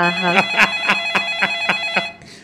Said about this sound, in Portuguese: Tele... telefone tocou! Telefone tocou!